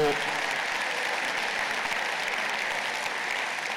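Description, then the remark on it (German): Steady applause from a crowd in the hall of the Audi Dome fills the whole stretch, a dense, even wash of many hands clapping at once, loud and sustained without a break. “Die Reaktion hier, genauso wie im Saal da im Audidom, es gab Applaus.”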